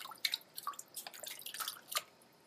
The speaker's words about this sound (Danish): Denne her flade fisk, som plasker rundt i, i baljen, den hedder en ising.